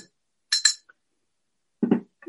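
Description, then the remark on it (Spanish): A small spoon stirs a mixture of oil and water in a glass, giving two quick, bright clinks followed by a faint tick, then a duller, lower knock after a short pause. “sin embargo, aquí lo que estamos viendo es que ya se empezó a crear una mezcla más o menos homogénea, ya se enturbió un poquito el agua, si lo, lo revolvemos con una pequeña cucharita,”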